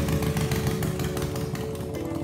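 A motorcycle engine starts and revs loud, a steady, rough mechanical drone with a constant low hum and no voices.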